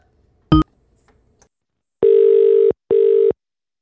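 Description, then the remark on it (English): A sharp click, then a phone line ringing on the other end while calling Alpha Cars, a taxi firm: two steady, buzzy tone bursts in a quick double-ring pattern, loud, with no talking. “I should call him back.”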